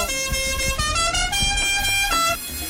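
Loud car horns honk in a dense overlapping burst, several tones blaring together in short repeated blasts for a few seconds, with no voices.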